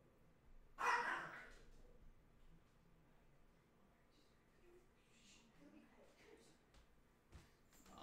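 A small Lhasa Apso dog lets out one sharp, loud bark near the start, followed by a quiet stretch with faint background noise and a few soft sounds.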